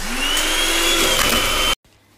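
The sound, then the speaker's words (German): A loud, steady electric motor whir of a hand mixer stirring a dough of eggs and milk holds for about two seconds and then cuts off abruptly, leaving near silence. “Jetzt muss ich noch den Mixer einstecken.”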